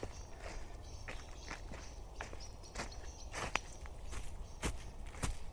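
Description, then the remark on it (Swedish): Footsteps crunch steadily through forest undergrowth at night as people walk out of the forest, a walking rhythm of soft steps with occasional sharper snaps, over a low constant background hum. “Nej, kom vi går här. Vi går ut från skogen igen.”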